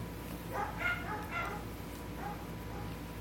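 A dog gives a quick cluster of three or four short, high yipping barks, then one more after a brief pause, fairly faint against a steady background hiss with no talking.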